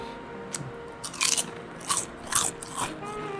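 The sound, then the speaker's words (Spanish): Crisp crunching of potato chips from a bag that had been open for about two months: a few sharp, bright bites spaced roughly half a second apart, each with a brittle crackle, over a quiet background. “Están crujientes al menos.”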